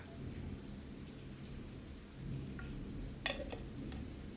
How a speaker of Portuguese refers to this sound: Agora, agora Agora eu tive medo aqui. Eu, eu tive a sensação que o, o, trovão aqui, o raio, caiu no, no quintal de casa.